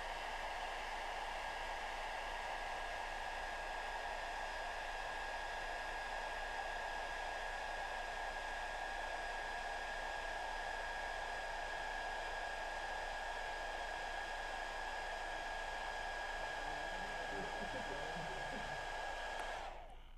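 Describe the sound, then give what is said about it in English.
A hair dryer blows steadily and loudly, its airflow levitating a ping pong ball, a constant whooshing roar with a whining motor tone, cutting off abruptly at the very end. “hair dryer does not need to be below the ping pong ball for that to happen.”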